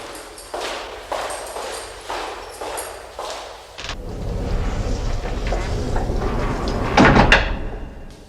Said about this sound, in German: Schließt bitte hinter mir die Tür. Aus Sicherheitsgründen. Machen wir, Madame.